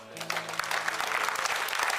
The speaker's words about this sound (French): Si le Seigneur t'a parlé, donne la meilleure acclamation au Seigneur.